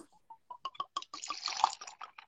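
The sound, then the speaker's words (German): Cognac pours into a glass, starting as a few separate drips and building into a steady, gurgling, splashing stream that rises in pitch before tapering off. No one speaks. “Auf, aber, aber ganz kurz, wir müssen alle ruhig sein, weil du weißt ja, der erste Tropfen, der ist ja ganz wichtig, der, der, der klingt ganz anders.”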